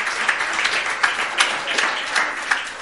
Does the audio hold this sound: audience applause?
yes